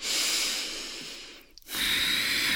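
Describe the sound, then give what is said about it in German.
A deep, airy inhale is followed by a brief pause and then a long, steady exhale, taken during a stretching exercise with the chest turned to the right, with no talking. “Und auch hier, wir atmen tief ein und aus, Blick geht auch nach rechts.”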